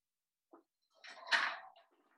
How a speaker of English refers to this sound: The garage door slowly rises